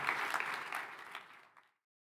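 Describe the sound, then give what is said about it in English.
A church audience at an Anglican church in East Atlanta applauds warmly to thank a guest speaker, a dense wash of many clapping hands that holds steady and then tapers off quickly into silence after about a second and a half. “Let's hear it for David Roth. Thank him for coming.”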